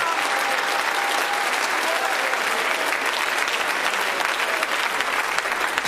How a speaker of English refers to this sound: Now clap your hands with faith if you really believe that.